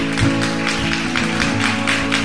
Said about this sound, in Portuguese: Amém e amém. Amém? Vamos dar uma salva de palmas a Deus aí.